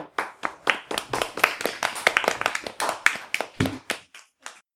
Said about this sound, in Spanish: Pues sabéis lo que os digo, que lo habéis hecho genial, que espero que os haya gustado la visita a la radio. ¿Contentos? Sí. sí. Venga, pues genial, un aplauso.